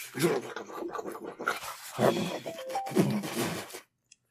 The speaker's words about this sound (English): The pup, the pupper is here too. Man, she's ha- she's really happy.